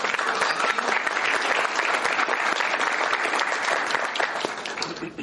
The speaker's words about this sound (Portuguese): Gostaria de uma salva de palmas uh. para ela, linda.